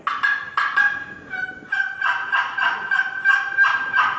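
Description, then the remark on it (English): A turkey box call, run in different directions, scrapes out a quick series of raspy, high yelps in short bursts, loud, imitating a hen turkey, with no voices. “And you know, of course, sometimes if I think one's over here, a lot of times you can run a box call all kind of different ways.”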